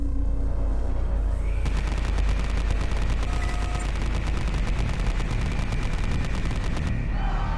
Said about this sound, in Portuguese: Do céu, uma nave do tipo pelicano desceu, fazendo um barulho agudo que criou caos e espanto em minha multidão, seguido por uma saraivada de tiros.